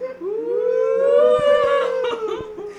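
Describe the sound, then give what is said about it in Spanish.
Coyotes howl together in long, wavering, siren-like notes that rise and slowly fall, several voices overlapping, with a few short sharp yips breaking in near the end. Fairly loud, no talking. “por ahí ya se escucharon los coyotes”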